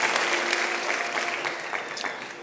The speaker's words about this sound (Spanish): Si tú lo crees, da un fuerte aplauso de gloria a Dios.